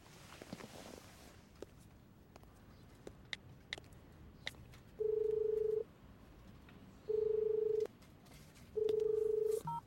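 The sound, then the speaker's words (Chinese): A phone call being placed: faint scattered clicks of dialing, then three loud, steady ringback tones, each nearly a second long and evenly spaced, with nobody speaking. “裴哥，怎么想到打电话给我？”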